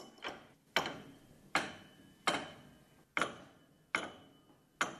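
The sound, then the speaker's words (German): High notes of a prepared piano, muted and struck with a wooden stick shaped like a wooden ruler, give short, dry knocks like claves, about seven evenly spaced strikes with a brief pitched ring, clear with no voices. “Das hört sich so an, als ob du mit Klanghölzern aufeinander schlägst.”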